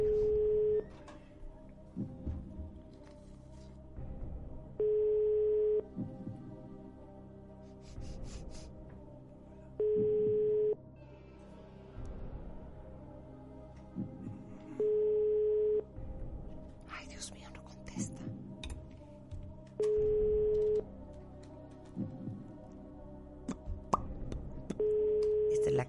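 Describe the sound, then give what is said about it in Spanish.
A telephone ringback tone repeats steadily during a call to a contest finalist's mobile phone. A short steady beep sounds roughly every five seconds, about six times, with no answer, while faint murmuring voices and small rustles continue underneath. “Pues la señora no contesta el teléfono.”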